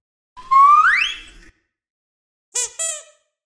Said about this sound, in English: Let's move on to the kids' toy sounds. Here are two sounds that I used throughout the piece.